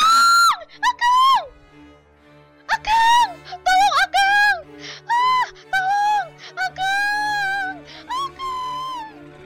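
A woman screams in loud, close, high-pitched bursts, her wavering cries repeating about a dozen times with short breathless gaps over a faint steady hum.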